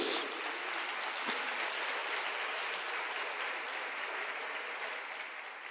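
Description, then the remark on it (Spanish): During a Spanish-language sermon, a large crowd applauds the Lord Jesus. It claps steadily and continuously in a dense wash of applause that holds at a fairly loud level throughout and tapers only slightly toward the end. “De un aplauso al Señor Jesús.”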